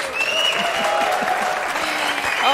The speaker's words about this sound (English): Let's come in with our claps and applause.